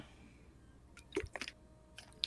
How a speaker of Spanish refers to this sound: después de este trago de agua, continúo.